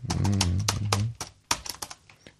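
Rapid keyboard typing of a password into a telephone system, with irregular clicks and taps, mixed with a low humming tone in the first second, then a few sharper separated key presses.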